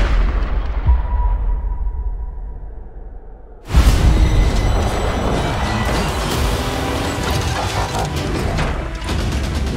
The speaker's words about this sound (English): The rifle is an extension of me. One, two, five, one, two, five. And I strike you down. I know where you are now. Bang.